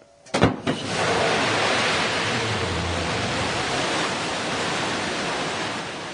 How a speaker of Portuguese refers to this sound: Esse aí é o som da decolagem da missão de hoje, da New Shepard. Desta vez, o ator William Shatner, que interpretou o papel do Capitão Kirk na série Jornada nas Estrelas, é quem se aventurou no espaço.